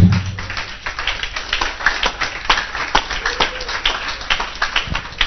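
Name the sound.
audience clapping hands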